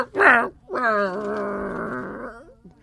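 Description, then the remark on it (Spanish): A person imitates a dog, as a pun on the Spanish words 'trasladar' and 'ladrar' (to bark): one short, sharp bark followed by a long, drawn-out growling howl lasting nearly two seconds, loud and voiced. “Trasladrar, como un maldito perro, calles la boca.”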